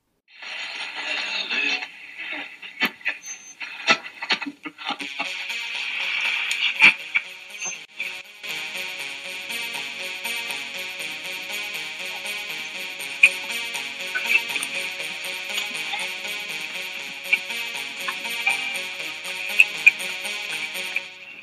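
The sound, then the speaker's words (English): A segment jingle plays with no voices as the 'postal cat' mail segment begins: a scattered run of ticking, clicky hits opens it, then a steady, bright, high-pitched tonal layer sustains under light regular taps until the end. “So let's let's a have our po- our postal kitten come on over while uh, you roll the jingle. Drop the bass.”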